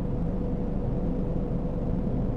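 Steady low-frequency rumble of a car interior while driving home from work, a constant dense drone without pauses or voices.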